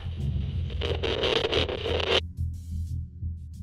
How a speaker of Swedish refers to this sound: Jag samlade mig och hör plötsligt hur min radio sprakar till.